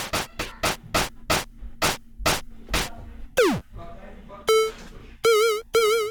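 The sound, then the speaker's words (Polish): A run of punchy electronic drum hits, then a long downward-sweeping synth drum and sustained, wobbling electronic tones, the drum sound lengthened by modulation, all clear with no one talking. “Też to jest bardziej wydłużanie dźwięku perkusji.”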